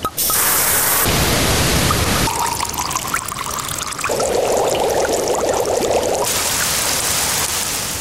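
Water runs steadily from a tap, a loud continuous pour whose pitch and splash change as the flow shifts, with no voices.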